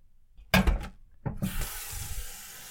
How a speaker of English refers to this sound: And filling up a pot with water to rinse these in.